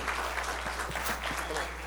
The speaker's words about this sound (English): Why don't you put your hands together and give the Lord a hand clap? Amen.